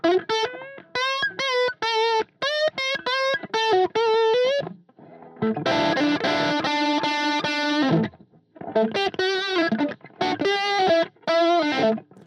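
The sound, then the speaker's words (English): A distorted electric guitar solo plays loud phrases of bent, wavering notes with heavy vibrato, broken by a sustained, thick held passage in the middle before the wailing runs return. “It sounds like the guitar's in pain”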